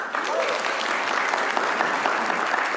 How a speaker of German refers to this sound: Wer von euch ist so mutig, dieses Geschenk hier vorne auszupacken? Ja, dort hinten. Ja, du. Mal einen dicken Applaus.